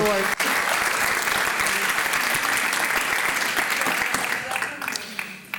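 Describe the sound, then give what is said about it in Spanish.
An audience breaks into loud, sustained applause, dense rapid clapping that holds steady for several seconds before thinning out toward the end. “Dígale amén al Señor. aplauso.”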